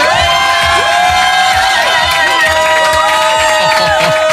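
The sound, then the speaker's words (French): A packed studio crowd cheers and shouts at full volume in the morning, high whoops and yells piling on top of each other in one dense, continuous roar from start to finish. “je veux que ça hurle”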